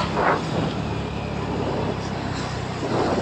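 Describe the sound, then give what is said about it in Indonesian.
Steady, loud roar of road traffic, with cars and trucks rumbling past continuously and a couple of brief swells as vehicles go by. “Mobil mau ugal-ugalan, emang truk oleng apa?”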